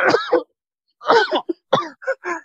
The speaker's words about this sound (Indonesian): Sampai batuk-batuk.